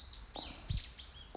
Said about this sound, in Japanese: えー、今これ聞こえてますかね鳥の声めっちゃ入ってるかもしれないんですけど、えー、外です今日は